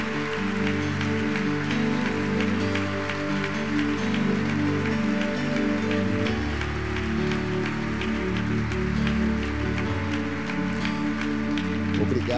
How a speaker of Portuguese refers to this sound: Eu queria que a igreja pudesse aplaudir a Jesus pela vida do pastor Billy Graham, que já não está mais entre nós.